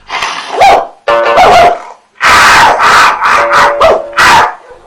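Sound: dog barking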